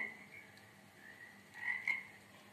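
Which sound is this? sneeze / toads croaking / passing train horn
toads croaking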